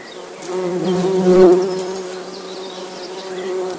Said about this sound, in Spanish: Así se escuchan las abejas.